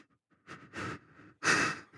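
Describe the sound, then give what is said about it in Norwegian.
A person imitates heavy panting as if out of breath after running to catch the bus, several loud, breathy huffs in quick uneven succession, with no words spoken. “Det er litt som om, om, du må løpe til bussen, og så kommer du på bussen, så er du egentlig sånn Men du gjør sånn her.”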